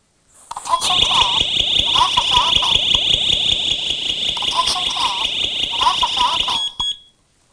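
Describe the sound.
A gas leak detector, set off by lighter fluid sprayed into it, sounds a loud, steady high-pitched alarm tone for about six seconds while a recorded electronic voice warning, something like "Attention please" about a leak, plays over it, then both cut off abruptly.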